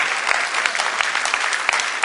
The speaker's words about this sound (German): Also, vielleicht, ja, ihr könnt ihm ruhig mal einen Applaus geben.